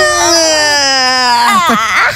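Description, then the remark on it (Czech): A long, drawn-out stretching yell at the start of a song, from one voice, holds a steady, slightly falling tone for over a second, then wobbles and breaks into a strained, warbling cry at the end, loud and alone. “Znáte takový ten pocit, kdy se protáhnete a uděláte u toho ten klasický výkřik?”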